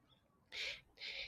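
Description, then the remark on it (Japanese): A crow caws twice in quick succession, two loud, harsh calls, with only faint background noise in between and no voices. “ちょっとね、カラスの声がひときわ大きいので、鳴き始めると、あの、他の鳥さんの声がやっぱりかき消されてしまいますね。”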